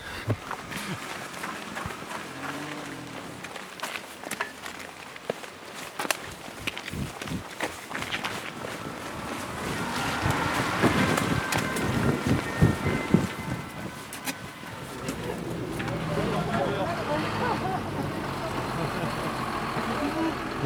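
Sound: tractor engine approaching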